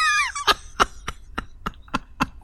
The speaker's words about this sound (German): Oder ja, es sei denn, da läuft die Säge da hinten.